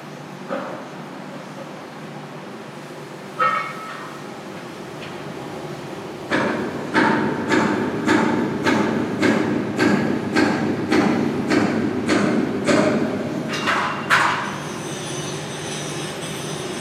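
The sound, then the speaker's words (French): Heavy metallic banging rings out in a steady series of about a dozen blows, like workers hammering on a ship's steel hull, over a low industrial rumble with no talking. “Les hommes s'attellent à la coque du bateau comme d'une baleine, la gueule béante.”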